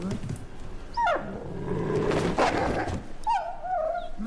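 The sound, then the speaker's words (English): Ghost, a wolf, whimpers in high, wavering whines, then growls low and rough, then whines again, moderately loud, with faint background noise throughout; Ghost is angry about what he is sleeping on. “Yeah, do do do, Because do wolves bed- really make that sound?”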